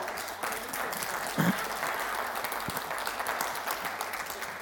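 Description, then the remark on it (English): Audience applause fills the whole stretch, a steady, dense wash of many hands clapping at a fairly even loudness, with a brief bump partway through. “Yeah, you can clap for that. If you're going to clap, do it well.”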